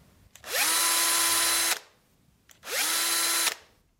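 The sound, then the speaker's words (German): A cordless drill (screwdriver), worked by a trigger, whirs up with a rising pitch, runs steadily for about a second, stops, then spins up and runs again in a second loud burst. “das nächste Gerät ein Akkuschrauber.”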